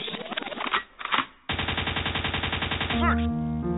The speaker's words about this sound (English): A gunshot means forward.